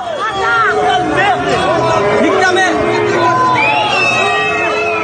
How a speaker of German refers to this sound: Ja, Sie hören da eine ziemlich aggressive Menge von Demonstrierenden der Gelbwesten in Paris. Die schreien da Parolen wie Das Volk wird dich bestrafen oder Du dreckiger Zionist.